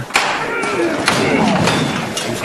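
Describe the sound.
A heavy procession float is hoisted by its costaleros (bearers) at the Plaza de San Lorenzo after the hammer knock: a few dull thuds and knocks ring out over a steady, loud wash of crowd noise and murmuring voices.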